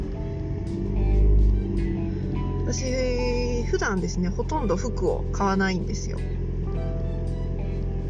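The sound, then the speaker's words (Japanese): A steady low engine rumble fills a car cabin throughout as a woman, who has just got into the car to go to an outlet mall, talks into the microphone over the droning hum. “なんかちょっと体を動かそうかなということでこれからアウトレットに行ってこようと思ってあの今車に乗ったところです”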